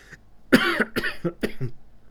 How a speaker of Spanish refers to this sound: Hay como siempre, la tos que me sobrecoge.